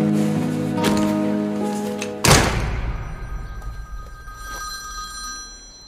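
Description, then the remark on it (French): A telephone bell rings steadily for about two seconds, then is cut off by a sharp thump, leaving faint fading tones over quiet background noise. No one speaks. “Allô J'étais avec qui au téléphone”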